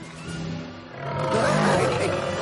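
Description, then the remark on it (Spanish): A lion roars in a long, rough, rumbling growl that swells louder halfway through and holds its strength to the end, with no voices over it. “Entran el león y el gallo.”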